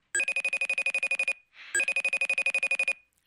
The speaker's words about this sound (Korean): 오후에는 애들 데리러 와서 데려와 데려와서 간식 좀 먹이고 같이 쉬어야지 할 때 꼭 어머니의 벨소리가 울립니다요.